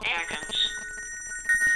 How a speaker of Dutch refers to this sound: Dan moet, als het goed is... Ah, dan moet mijn mobiel overgaan. En dat doet hij.